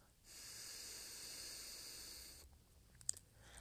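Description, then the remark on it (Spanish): A steady, airy exhale through one nostril with the other nostril covered, after holding the breath, a soft hissing breath lasting about two seconds, clear, followed by quiet and a small click. “Por ejemplo, podemos taparnos un lado de nuestra fosa nasal. Mantener uno, dos, 3, cuatro, cinco y soltar por el otro lado.”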